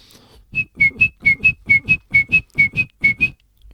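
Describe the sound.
A person whistles a clipped, metallic birdlike call, repeating a pair of short notes about ten times in a steady, even rhythm, clear with no talking.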